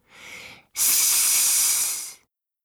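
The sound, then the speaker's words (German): A small lizard at a small stone wall beside a forest path hisses twice: a short, softer hiss, then after a brief pause a longer, louder, sharp sustained hiss that fades out. No talking. “Der kleine Bär geht noch tiefer in die Hocke und sieht eine kleine Eidechse. Sss, entgegnet sie ihm.”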